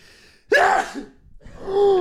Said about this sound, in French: J'adore faire exprès d'éternuer fort. ah, c'était pas, pas, pas fait exprès euh, ah, là, je pense que j'étais à, à 150% de ce que je fais d'habitude.